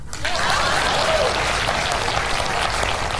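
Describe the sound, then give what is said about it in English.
An audience breaks into steady applause, a dense, even wash of clapping hands that holds at a consistent loudness for a few seconds without letting up. “Please clap.”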